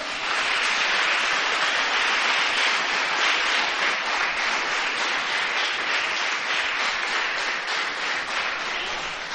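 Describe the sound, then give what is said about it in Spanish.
An audience breaks into loud, sustained applause for the Lord, a dense wash of many hands clapping steadily for about nine seconds with no voices standing out. “¿Le das un fuerte aplauso al Señor?”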